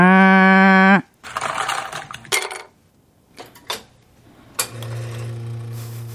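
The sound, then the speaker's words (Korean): A robot barista machine makes a latte: a loud droning motor hum, then rattling and clinking bursts, a few sharp taps, and a steady lower mechanical hum returning at the end. No one speaks. “로봇 바리스타를 보면서 그런 생각을 했습니다.”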